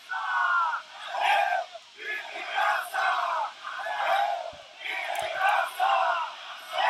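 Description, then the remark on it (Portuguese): A large rally crowd watching a speech by Bolsonaro chants in rhythmic, repeated bursts, many voices shouting together in a steady cadence with cheering swelling between phrases, loud and sustained throughout. “você vai perceber que isso é algo que conecta com o movimento das pessoas que estão ali assistindo ao discurso”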